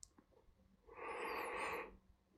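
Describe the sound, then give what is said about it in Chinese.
A single snore from someone asleep, one breathy, rasping draw of about a second that rises, holds and fades, with near silence before and after and no talking. “听着你睡着了，打呼噜啊，想象一下，好像你就在身边一样。”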